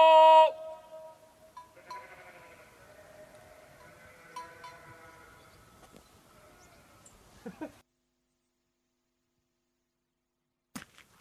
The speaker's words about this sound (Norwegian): han roper 'kom nå', og så rett etterpå så hører du mange sauer. Du hører litt bjeller, kanskje dere hører